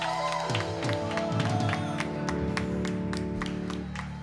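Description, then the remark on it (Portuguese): An audience at a church service claps and applauds the Lord over sustained music, the claps landing in a fairly steady rhythm at a moderate level for several seconds. “Aplauda o Senhor!”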